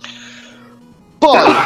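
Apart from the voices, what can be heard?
sneeze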